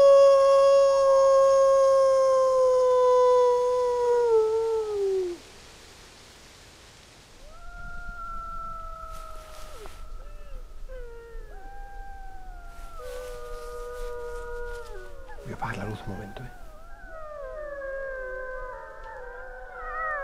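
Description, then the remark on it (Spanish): A single loud howl slides downward and fades. After a short quiet, a pack of about 10 to 13 wolves answers with many overlapping, wavering howls that rise and fall together until the end. “Yo sabía que me iba a contestar, porque ya lo había hecho alguna vez, pero no me imaginaba que iban a ser 10, 12, 13 lobos, no sé cuántos eran.”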